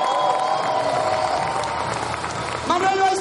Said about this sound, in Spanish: Un aplauso para